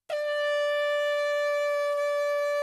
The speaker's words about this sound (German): Platz 9, die Vuvuzela.